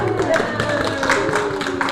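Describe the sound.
An audience claps in a steady, dense patter for a couple of seconds at the end of a story told to children, with children's voices chattering and calling out underneath the applause.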